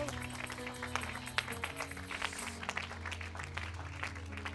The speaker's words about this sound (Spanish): Oh, dale un aplauso al que vive para siempre. Aleluya.